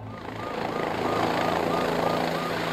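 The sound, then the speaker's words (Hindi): A helicopter's rotor thrums loud as it arrives on a hotel rooftop, a steady chopping drone that swells slightly in the first second and then holds at a constant, heavy level throughout. “helicopter छत पर पहुंच चुका था”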